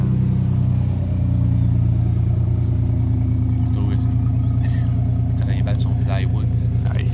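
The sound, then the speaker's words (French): An old GMC Sonoma pickup truck loaded with plywood rumbles past, its deep, throbbing engine loud and steady for several seconds, with some voices faintly audible over the noise. “on va attendre que le camion passe.”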